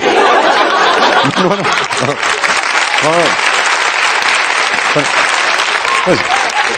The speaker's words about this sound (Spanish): la primera vez que en un programa de comedia se aplaude el ingeniero, quiero decir...